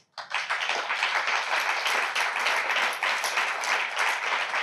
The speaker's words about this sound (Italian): Applaudite, sì.